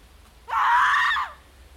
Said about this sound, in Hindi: अंगड़ाई लेते लेते अचानक उसकी सांस अटक जाती है और वो अपने हाथ पैर छटपटाते हुए अगले ही पल एक दिल दहला देने वाली चीख निकाल देती है